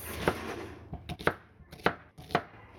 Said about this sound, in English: And so by chopping the onion, I'm going to demonstrate. You can kind of make a grid first. Like I like to go like this.